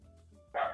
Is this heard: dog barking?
yes